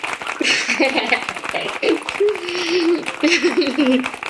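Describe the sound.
Audience applause, a dense steady patter of many hands clapping throughout, mixed with voices calling out and cheering over it.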